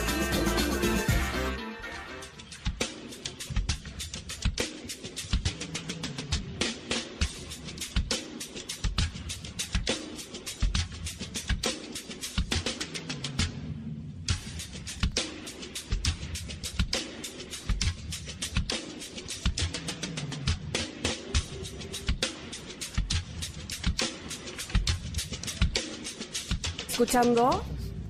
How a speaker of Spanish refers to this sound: Estamos escuchando música de un show que ha representado a nuestro país desde el 2003.